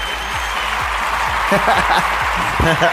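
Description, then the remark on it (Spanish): Steady audience applause, a dense even patter of clapping that continues throughout, with a voice and some laughter rising over it toward the end. “Muchísimas gracias por los aplausos, gracias, gracias.”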